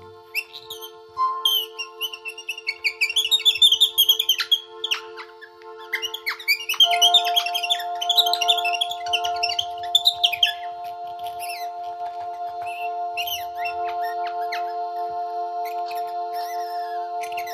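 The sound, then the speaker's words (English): Bright robin chirps and warbling trills flit over a steady humming drone, busy for about ten seconds before the birdsong drops away and the sustained tone carries on alone. “It just needs a little robin.”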